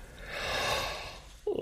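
A quiet, drawn-out yawn: a long breathy rush of air swells and fades over more than a second, then ends in a brief low voiced whine.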